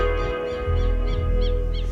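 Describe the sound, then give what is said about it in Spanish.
A bird calls repeatedly in a steady rhythm, short rising-falling chirps about twice a second, sitting over a continuous droning musical background with a strong low hum. “Ahí se fue de tiempo, el hijo de Pájaro de mierda.”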